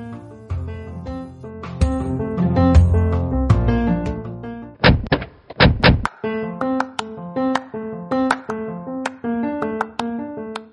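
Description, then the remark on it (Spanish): The door of the Topolino Azul shuts with a few solid thunks in quick succession, heard over bright, steady background music that carries on before and after. “Les abro la puerta del Topolino Azul para que juntos salvemos la esperanza y recuperemos el equilibrio.”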